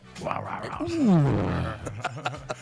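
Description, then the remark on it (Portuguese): A person imitates a lion's roar: one loud, growling vocal roar that swells and then slides down in pitch, followed by a few faint clicks. “igual, ele urra igual o leão.”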